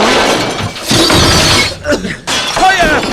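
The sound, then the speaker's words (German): Loud glass shattering as computer monitors in an office implode, a dense crashing burst of breaking glass with bright tinkling debris, followed by further crunching and clinking fragments. “Die Monitore implodieren.”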